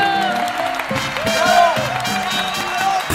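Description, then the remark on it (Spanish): A steady burst of studio applause with scattered cheers and whoops, given to congratulate the boss, loud, holding at an even level for a few seconds with some voices mixed into the crowd noise. “Y un aplauso para jefe.”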